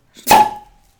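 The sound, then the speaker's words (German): A beer bottle is opened with a sharp pop and a quick burst of fizzing hiss that fades within half a second, followed by a brief quiet tap. “Achtung, ich mache ein Bier auf.”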